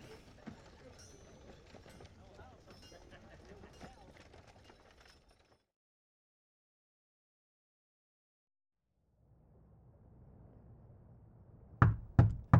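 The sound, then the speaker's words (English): A busy stretch of sound gives way to silence, then a low hum, and finally three loud, sharp knocks on a door in quick succession. “Uh, open the door, please.”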